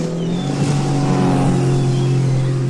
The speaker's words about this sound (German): Ein alter Mann auf einem Sportboot.